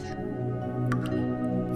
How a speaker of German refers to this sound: Stelle dir eine tropfende Regenrinne vor. Darunter hat sich eine Pfütze gebildet und du siehst, wie ein Tropfen nach dem anderen in die Pfütze fällt. Ganz langsam, Tropfen für Tropfen.